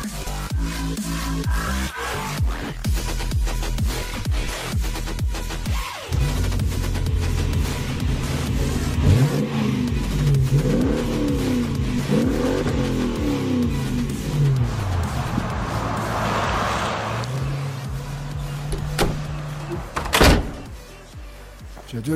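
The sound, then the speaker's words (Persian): A car engine idles and revs as the car is being brought inside, its pitch rising and falling in sweeps, with a few sharp thuds like a car door shutting and a brief loud knock near the end. “ماشین بیار تو”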